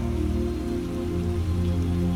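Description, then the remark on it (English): Steady rain falls continuously, a dense, even patter of drops at moderate loudness, with a soft low tonal hum running beneath it and no voices. “Letting it all go with the rain flowing down your body.”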